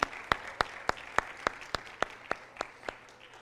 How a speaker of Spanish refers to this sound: Dios, déle un aplauso a Él, no a mí, a Él sí, déselo, porque Él pensó en ti.